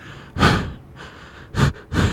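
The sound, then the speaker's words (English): A voice imitates heavy, rhythmic panting made while playing a video game: several loud, breathy huffs with quieter inhales between them and no speech. “like because I'm like panting or whatever it is I'm playing, mm-hmm.”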